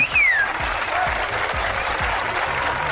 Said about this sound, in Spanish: Un aplauso para ustedes porque están rifándosela muy duro.